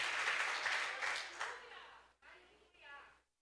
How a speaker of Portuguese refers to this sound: Aplauda o Senhor aí, meu irmão. Aleluia.